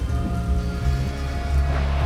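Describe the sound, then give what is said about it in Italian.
Steady rain hissing across the whole stretch, dense, with a low sustained synth-like drone and deep rumble underneath. No voices. “Magari si limiteranno a mostrare la malinconica saggezza di Roy Batty, il replicante di Blade Runner che annuncia la sua morte con parole immortali, sporche di pioggia nera.”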